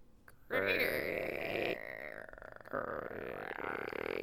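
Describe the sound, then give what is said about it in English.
A voice makes a long, strained, groaning creak, imitating the creaking of a ship's wooden timbers, sustained for several seconds with a brief break and a wavering, gravelly texture, fairly loud. “I wonder if I could do the creaking of ship's timbers.”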